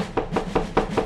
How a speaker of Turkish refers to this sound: Cücelerin evine varınca kapıyı çalmış.